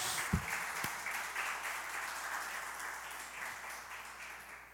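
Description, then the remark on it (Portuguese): An audience applauds Jesus steadily for several seconds, a dense wash of many hands clapping with a couple of sharper thumps early on, then slowly thinning without any voices. “Diga amém e aplauda Jesus por isso.”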